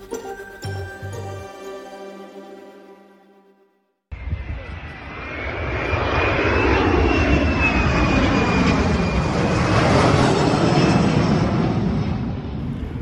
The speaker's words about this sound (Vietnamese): Xuất hiện qua đám khói, một máy bay chữa cháy đã được điều đến để hỗ trợ cho các đơn vị chiến đấu với đám cháy ngoài tầm kiểm soát ở khu vực Trung Tây New South Wales.